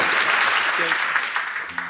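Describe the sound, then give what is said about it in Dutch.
A crowd applauds with dense, steady clapping that stays loud throughout, and a brief voice briefly cuts through near the end. “ik vind op zich een statement voor een applaus.”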